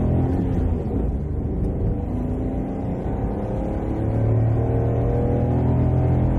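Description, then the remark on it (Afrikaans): A Datsun's small 1.2-litre three-cylinder car engine (50 kW, 104 Nm) revs steadily, its buzzy, slightly rough drone climbing in pitch toward the end, loud and continuous with no voices. “Terwyl ander intervlak karre van 1 liter masjiene gebruik maak, spoeg die Datsuns met 'n 1.2 liter 3-silinder wat so 'n tikkie meer wrinkerig uitstoot.”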